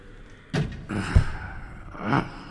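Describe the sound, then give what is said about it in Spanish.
A dining-room door swings and shuts with a solid thud near the middle, preceded by a rustle of movement and followed by a brief shuffling sound; no one speaks. “Pero en el instante en que hubo desaparecido, me agarró sin más, me llevó al comedor y cerró la puerta.”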